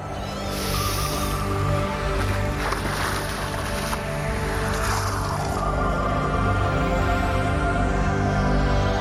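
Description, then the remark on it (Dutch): A steady, dense rush of water and bubbling as someone dives under the water's surface, with a low droning hum underneath and no speech, holding an even loudness throughout. “Ik duik nog even onder.”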